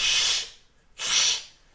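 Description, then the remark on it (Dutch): A person imitates a cat's hiss with two sharp, breathy bursts, each about half a second long, separated by a brief pause. The hisses are fairly loud, with no talking. “En je ziet die kat nog meer blazen.”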